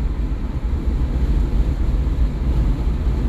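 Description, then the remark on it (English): Steady, loud wind buffeting rushes past in a continuous low roar as air blasts through a car's lowered windows at speed on a 60-degree morning, with no breaks or voices for the whole stretch. “All right, now we got some windows down.”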